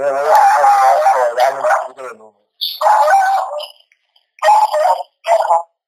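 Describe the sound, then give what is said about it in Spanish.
Dogs howl and bark in a few loud, wavering bursts separated by short pauses, the first drawn-out cry the longest, followed by shorter yelping calls. “Y los perros, oh, ¿vale?”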